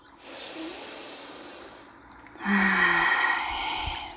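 deep slow breathing

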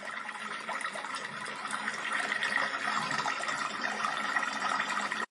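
flowing stream water

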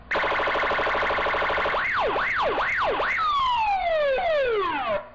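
siren sound effect

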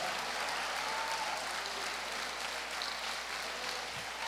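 audience applauding

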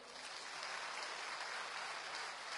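applause

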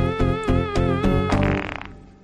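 cow fart sound effect

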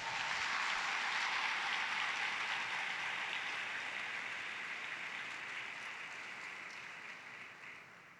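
audience applauding

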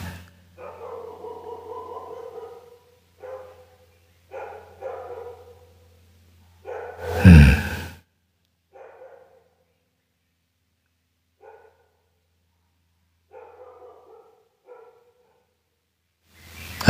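dog barking

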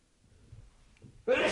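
sneeze

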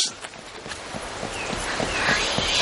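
horse hooves clip-clopping

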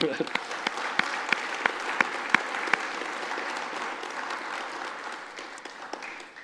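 audience applause

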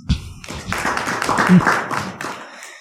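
audience clapping

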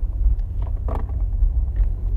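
car interior driving rumble

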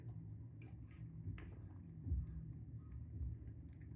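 person drinking water

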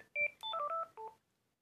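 telephone ringing

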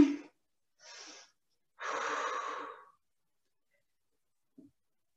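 slow breathing

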